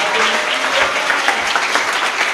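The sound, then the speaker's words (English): A church audience claps together for Jesus in a dense, steady wash of applause, many hands overlapping into a continuous crackling roar that stays loud and even throughout. “Come on, church, clap your hands together for Jesus.”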